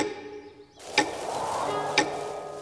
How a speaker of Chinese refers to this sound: 在斑点龙的鼓励下，犀牛冲冲带着短颈鹿悠悠最爱的芒果蛋糕。满怀期待地敲响了悠悠家的大门。